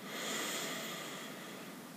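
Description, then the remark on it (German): A single long, steady inhale through the nose during a guided breathing exercise, a soft airy hiss lasting about two seconds that tapers slightly at the end, with no talking. “Wir atmen wieder durch die Nase ein.”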